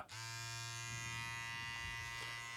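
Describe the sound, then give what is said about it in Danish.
A Manscaped Lawnmower electric body hair trimmer buzzes steadily and loudly, a constant motor hum with a bright whine that starts abruptly and holds unchanged for a couple of seconds, with no talking. “Det er lyden af The Lawnmower, som er en del af Manscapes uh, øh, Performance Package 4.0.”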